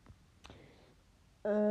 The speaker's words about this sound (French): si vous entendez oui là c'est mon téléphone, donc vous, vous inquiétez pas, c'est tout à fait normal.